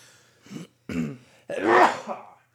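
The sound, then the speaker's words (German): A fairly loud sneeze: two short breathy catches build into a longer, voiced burst that trails off, with no talking around it. “Gesundheit.”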